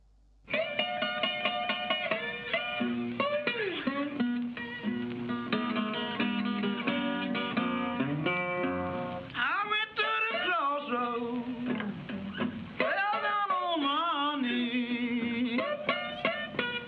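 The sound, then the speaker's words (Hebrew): An old, band-limited 1930s blues recording of a voice singing with sliding, wavering pitch over steady acoustic guitar, loud and continuous throughout with a thin, muffled tone. “זאת הקלטה מאוד מאוד מאוד אה, בוסרית ובסיסית, אבל היא עדיין מלאה ברגש.”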